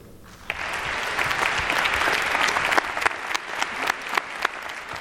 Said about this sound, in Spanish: aplausos de todos los asistentes, todos los melómanos, quienes sí se quedaron a escuchar finalmente el resultado de este primer premio, de este primer concurso Eduardo Mata